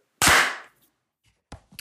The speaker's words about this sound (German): Lass uns einfach weiter klatschen.